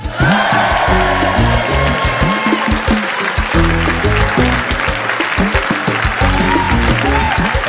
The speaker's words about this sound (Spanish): Estos aplausos son para ellas. Aquí en Estados Unidos y en muchos países de América celebramos a nuestras madres este próximo domingo.